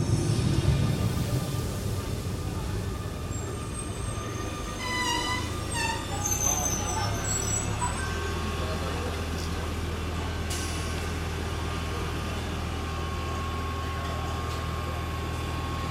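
A subway train rumbles into the station with a steady low roar, and high metallic squeals rise midway as it slows, followed by a constant mechanical hum.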